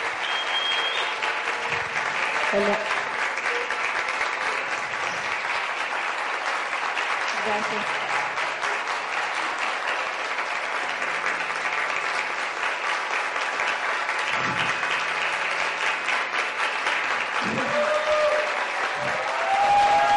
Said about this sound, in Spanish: Un fuerte, fuerte, fuertísimo aplauso para mi esposa.